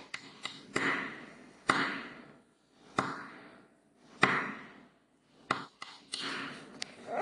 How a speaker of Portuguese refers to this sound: E o S, sabe o que é SOS? Sim. Socorro. É pedido de socorro, né? SOS em Morse é assim, ó.